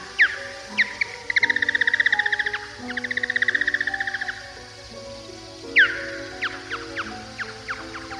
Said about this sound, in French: Tu entends ça C'est un bruit de chauve-souris. En fait, c'est un ultrason. Alors tu vas me dire comment on fait pour l'entendre, puisque les ultrasons, on ne les entend pas avec nos oreilles humaines.